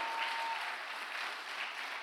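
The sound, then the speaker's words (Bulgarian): An audience claps steadily, a dense, continuous patter of many hands at a fairly even level with no voices heard, a faint thin tone briefly present at the start. “О, ако ръкопляскаш, ръкопляскай, че разбираш какво проповядвам днес.”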